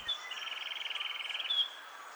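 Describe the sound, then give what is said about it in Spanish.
A sepia-brown wren's song, recorded in Caldas, Risaralda or Nariño, Colombia: a rapid, even trill of repeated notes lasting about a second, framed by brief high whistled notes at the start and end, with faint background hiss. “El trino del cucarachero sepia forma parte del Banco de Sonidos de Aves Colombianas recopilado por el Instituto von Humboldt y la Universidad de Cornell.”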